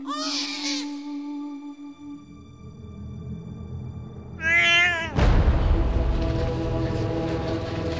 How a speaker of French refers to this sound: Il a entendu des cris d'enfants très aigus. C'est Socrate. Il vient tout juste de naître.